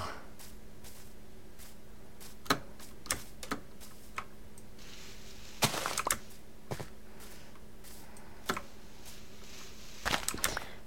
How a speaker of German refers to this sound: findet ihr auch, dass irgendwie dieses, dieses Geräusch, wenn man Erde abbaut, dass sich jetzt auch irgendwie anhört, wenn ein Creeper explodiert? Also, ist zumindest meine Meinung dazu.